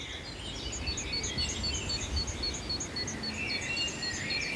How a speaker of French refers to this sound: Vous avez vu la mésange Le titi titi voilà. Ça c'est la mésange charbonnière qui appelle. J'ai l'impression qu'elle est plutôt par là-bas.